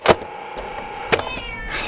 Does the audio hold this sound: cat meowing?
yes